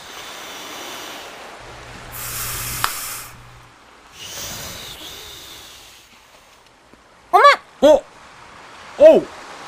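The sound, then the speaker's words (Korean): Two soft, breathy blowing bursts of air as someone blows a big bubble gum bubble, followed by three short vocal exclamations. “풍선인데 불어야죠.”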